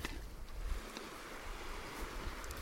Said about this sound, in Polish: Plaża fajna, płytka woda. Bardzo spokojne fale. To przez to, że jesteśmy w takim miejscu, gdzie ani nie ma specjalnie wiatru. Z trzech stron osłaniają nas góry.